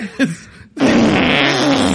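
A short sputter, a brief pause, then a loud, drawn-out raspy fart that rumbles steadily for over a second, close and alone with no talking.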